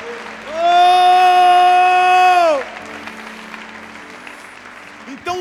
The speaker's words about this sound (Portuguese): Dê um brado ao Senhor e aplaudo neste lugar e adore.